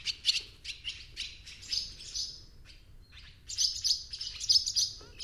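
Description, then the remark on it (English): Barn swallow calls: quick, bright twittering chirps in busy bursts, a short pause, then another burst of rapid twitters, over a low steady rumble of background noise. “The barn swallow is heard first.”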